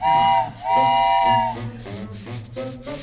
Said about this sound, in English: Ah, seems like the train started moving.